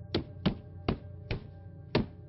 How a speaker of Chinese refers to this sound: 当黑衣人用手电筒轻敲窗玻璃时